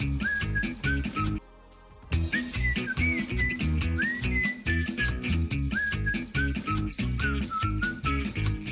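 A person whistles a bright, sliding melody in short phrases over a loud, steady rhythmic music backing, pausing briefly near the start before carrying on to the end.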